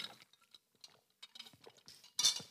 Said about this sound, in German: Ich, ähm, in großen Bechern, dieses Klonken, mm. das ist das Wort dafür, definitiv, mm von dicken Eiswürfeln an der, am, an der Wand des großen Glases. An der Wand des großen Glases.